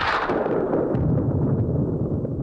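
A second crashing thunderclap, heard from inside a chapel, opens with a sharp, bright crack, then rolls on as a loud, heavy low rumble for a couple of seconds, with no voices.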